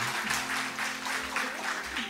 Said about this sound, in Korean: 자, 뜨거운 박수로, 뜨거운 박수로. 우리 동티모르에서 오신 아, 선교사님 사모님 맞아주시기 바랍니다.